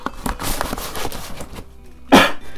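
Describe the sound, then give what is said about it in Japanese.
A cardboard box for a HIKAKIN BOX sound-effect device being opened: a series of scraping, crinkling bursts of packaging noise, ending in one louder, sharper rip or snap before it quiets. “ヒカキンボックス。誰でも動画クリエイターです。はい、早速開けてみましょう。”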